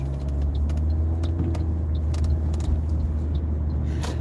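Steady low rumble of a car driving, engine and road noise droning continuously from inside the vehicle, with faint occasional clicks and rattles, no talking.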